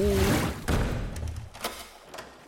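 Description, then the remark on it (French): A creaking heavy door, the only exit of a public bathhouse, swings and slams shut with a loud thud, followed by a few sharper wooden clunks as Olga's men bar it. “Sauf que pendant que toute la délégation est occupée à macérer dans leur propre kombucha, Olga donne soudainement l'ordre à ses hommes de barrer l'unique porte de sortie des bains publics et d'incendier le bâtiment.”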